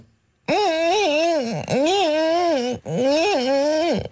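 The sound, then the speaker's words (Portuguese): A person vocally imitates a mosquito opening a creaking door: three long, loud, buzzy tones with wavering, bending pitch, separated by brief breaths, alone. “E agora faz uma melga a abrir uma porta que está a ranger.”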